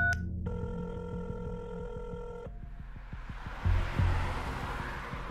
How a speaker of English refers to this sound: He's only a couple minutes away and he sees his phone ringing that was sitting on the passenger seat and he picks it up